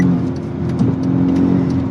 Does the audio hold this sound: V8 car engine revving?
yes